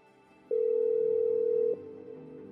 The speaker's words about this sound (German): Borchetta nimmt den Hörer ab und ruft in Schweden an.